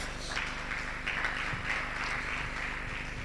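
An audience applauds steadily for about three seconds, a dense, even wash of many hands clapping at once with no voices breaking through.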